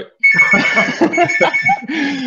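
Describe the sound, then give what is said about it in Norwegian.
A phone rings, a loud, steady electronic ringtone that sounds almost continuously, pauses very briefly, then starts ringing again. “Oi, her ringer det.”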